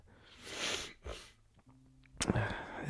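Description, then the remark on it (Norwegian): Someone clears their throat in a coughing fit: two harsh, breathy bursts, a short low grunt, then another rough, rasping clearing at the end. “Nå fikk jeg real eh, hostekule.”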